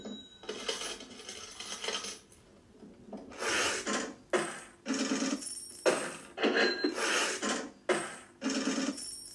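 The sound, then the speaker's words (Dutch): At the start of a rock song, a cash register drawer rattles open amid a flurry of jingling coins, with repeated bright metallic clinks and clatters in quick bursts, fairly loud, no voices. “Het begint al lekker met de ja, kassa die open gaat.”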